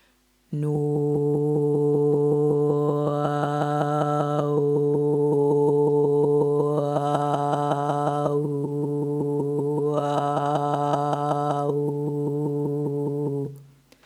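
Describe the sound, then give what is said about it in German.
A single voice holds one steady hummed tone for about fourteen seconds while the singer quickly and rhythmically taps their own chest, a bronchial hygiene exercise, making the sustained sound pulse and wobble. The vowel opens and brightens a few times. “paar Töne auf Nu oder Nu in unterschiedlichen Tonhöhen, dann kannst du anfangen, dich dabei am Brustkorb abzuklopfen.”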